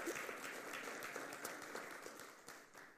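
A church audience applauding as praise to God for men who risked their lives for the Gospel: dense, steady clapping from many hands that fills the whole stretch at an even level, thinning only slightly toward the end, with no voices standing out.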